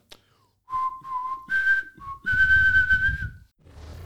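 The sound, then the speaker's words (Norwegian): A person whistles a short melodic tune, clear, with a few held and rising notes, while a low rumble of background noise sits underneath. “skal vi ta oss og plystre oss i gang uh, lading?”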